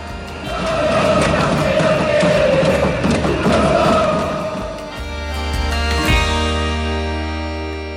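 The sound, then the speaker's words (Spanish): A loud protest crowd in Argentina, during the corralito economic crisis, shouts and chants "que se vayan todos" while pots clang sharply and repeatedly through the din in protest; the roar eases midway, leaving a steadier rumble with scattered metallic bangs. “Los argentinos salieron a la calle gritando que se vayan todos, mientras sonaban las cacerolas como protesta.”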